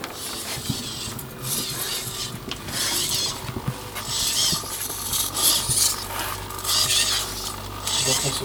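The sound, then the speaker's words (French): A small robot with an infrared sensor grinds and rasps in repeated bursts of motion while someone stays in front of it, with a steady low hum running underneath the whole time. “quand on reste devant, il continue de, parler avec nous, donc euh, de bouger.”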